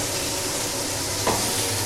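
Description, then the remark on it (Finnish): Lampreys sizzle steadily on a grill, a dense, continuous crackling hiss that stays loud and even throughout, with a brief sharper flare partway through and no voices. “Se muilla pinnoilla, se on tuossa ritilällä kaiken aikaa.”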